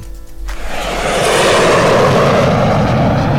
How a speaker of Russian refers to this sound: Ну, это, это уже аэропорт. Да, тут, тут вообще... Стою без, утра без, по самолету. Без, без вариантов а, самолет. Аэропорт. Абсолютно верно.